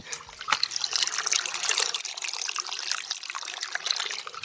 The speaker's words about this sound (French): J'ai un petit ruisseau à traverser là. C'est assez mignon, écoutez-moi ce petit bruit.